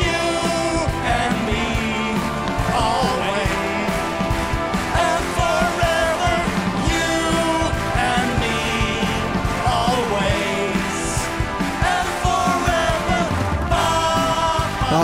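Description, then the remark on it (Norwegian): Two voices sing a duet that opened a broadcast, performed with a live band, with steady drums, bass and bright instruments filling out a full, continuous rock-style sound throughout. “starta hele sendinga med at … og … gjorde en duett sammen”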